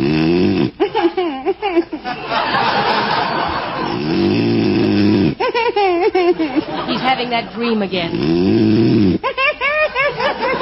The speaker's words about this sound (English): you said you wouldn't snore.